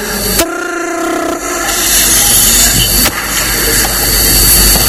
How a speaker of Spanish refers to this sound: El timbre de la puerta.